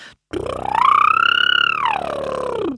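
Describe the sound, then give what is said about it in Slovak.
A single voiced lip trill, done as a vocal exercise going up and down the vocal scale, buzzing and fluttering, slides up in pitch, holds high, then glides back down over a few seconds. Fairly loud, with no talking. “A potom také, taký hlasový fitness, že idem aj hore-dole po hlasovej no, škále.”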